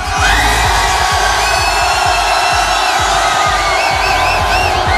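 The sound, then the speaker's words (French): A large outdoor New Year's Eve crowd in front of the Maison de Tignes in Tignes, France, cheers and shouts continuously and loudly in the last seconds of 2013, with whoops and whistles rising above the roar and rhythmic thumping beneath. “On va vivre les dernières secondes ici de 2013 devant la maison de Tignes. Il y a déjà un maximum de monde.”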